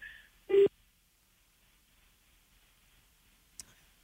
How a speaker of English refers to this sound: Could hear his phone cut out. Or uh, maybe he's got another call.